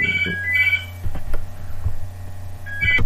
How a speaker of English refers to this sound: Oh, I was interrupted by the phone there.